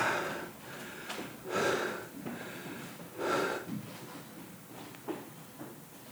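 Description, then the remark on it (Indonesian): Slow, deep breaths exhaled, three long airy whooshes spaced a second or more apart, with softer breathy rustles in between and no talking. “semuanya tenang ingin mendengarkan bapaknya ini bapaknya dengan hembusan perlahan-lahan bernapas perlahan-lahan lalu berbicara dan semua anak mendengar dia berkata”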